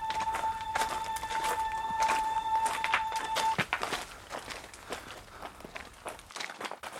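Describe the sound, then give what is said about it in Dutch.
Steady footsteps of people walking crunch along a path at a walking pace, with a faint high whine in the first half and no voices. “En kilometers lang is het stil als we stappen.”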